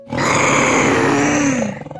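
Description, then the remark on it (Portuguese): A person roars in imitation of a tiger, one loud, sustained growling roar lasting nearly two seconds before trailing off, with no other sounds. “Você tem que rugir como um tigre.”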